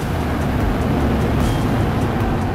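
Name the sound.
rocket engine roar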